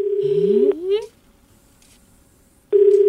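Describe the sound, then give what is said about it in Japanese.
An unanswered phone call to Shinbo's phone, which may be submerged in water: a steady low ringback beep sounds, stops for about two seconds of quiet, then starts again. A brief rising, whiny vocal sound overlaps the first beep. “繋がらないってことはこれ水没してることあダメだ”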